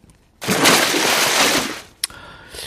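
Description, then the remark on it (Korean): An axe plunges into a pond with a loud, rushing splash lasting over a second, then fades, followed by a brief sharp click and a faint trailing hiss; a sound effect mixed into a song. “이게 세찬 물소리 같은데 이게 뭐냐면요. 이 도끼가 니네 도끼냐 할 때 그 도끼가 풍덩 예, 연못에 빠지는 소리입니다.”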